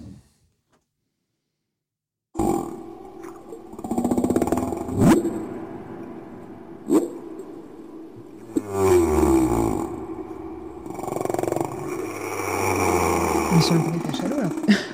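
After a short silence, humpback whale calls begin: a steady stream of low, groaning moans and rising and falling tonal sweeps with a few sharper cries, moderately loud and continuous.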